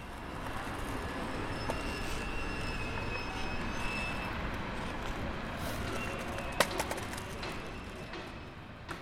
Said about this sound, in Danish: Der er en af lyd fra de mange tog, som konstant stuser forbi under broen lige ved siden af skaterparken.